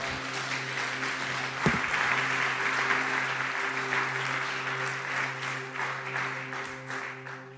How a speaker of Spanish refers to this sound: Si usted lo cree, dele aplausos, palmas al Señor.